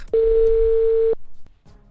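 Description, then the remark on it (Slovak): A single one-second phone ringing tone as a call is placed about a construction job vacancy, a steady electronic beep that starts and stops abruptly, loud, followed by quiet line noise. “Tak Kali kýve hlavou, že je pripravený a my teda voláme”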